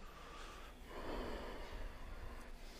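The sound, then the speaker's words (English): A single slow, audible breath during yoga practice: a long, airy, hissing exhale swells and then fades over a couple of seconds, soft, with no one talking. “The moment you put your attention on listening, to the pulsation of your breath, you begin generating your practice,”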